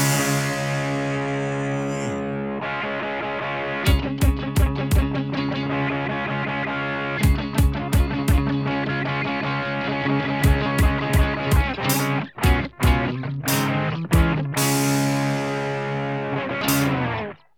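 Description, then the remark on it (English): A distorted electric guitar rings out in loud, thick, sustained chords, while sharp drum hits punctuate it in quick bursts and brief clusters. “It's the sound of a good guitar.”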